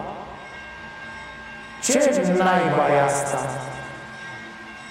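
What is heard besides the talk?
train running on rails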